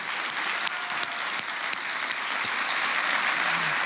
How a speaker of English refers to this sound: And when we do that, I'm trusting that all the other campuses are clapping too because they're welcoming everybody else in the movement.